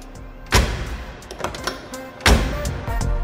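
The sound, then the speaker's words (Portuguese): The door of a customized convertible Volkswagen Beetle (Fusca), built by Sulan, shuts twice with a solid, heavy thunk, the two closings about two seconds apart, over faint background noise and a few softer knocks. “Olha como essa porta aqui fecha, ó. Na hora.”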